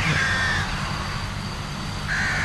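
Two harsh crow caws, one at the start and another near the end, loud over a steady outdoor background rumble, with no talking.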